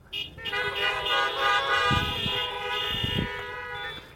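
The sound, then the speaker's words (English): A chorus of car horns honks together in a sustained, overlapping blare, with a few louder bursts standing out partway through, as many vehicles toot at once in applause for the worship team and sound techs. “I want to just a round of applause or a honk or for the worship team and for the sound techs that just roll the punches.”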